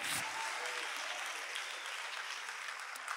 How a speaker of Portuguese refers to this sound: Se você vai aplaudir, aplauda mesmo.